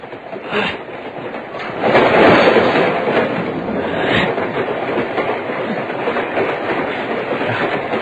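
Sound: moving train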